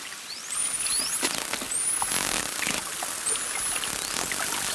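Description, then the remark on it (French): Bottlenose dolphin clicks and buzzes crackle through a hissing underwater wash, with about four high, thin whistles sweeping upward between them. No one speaks. “Si on écoutait un grand dauphin, par exemple”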